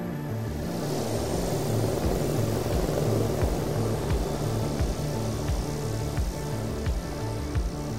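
Marine One, the presidential helicopter, lands to take President Trump to the White House in Washington. Its rotor thumps steadily over a loud, dense engine roar that stays constant throughout, with no voices.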